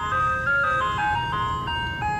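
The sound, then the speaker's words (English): A tinkling ice cream truck jingle plays a bright, repeating melody of high, bell-like notes over a low rumbling engine, with no voices. “That iconic music screams summer, and we all scream for ice cream.”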